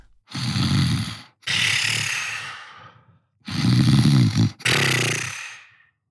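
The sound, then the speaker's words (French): Two loud snoring cycles, each a rumbling, buzzy inhale followed by a long airy whistling exhale, with brief silences between breaths and no talking, as Norbert, a big bear who is Father Christmas of the animals in a children's Christmas story, falls into a deep sleep after swallowing a potion. “Aussitôt, il baille et il tombe de tout son long dans un profond sommeil.”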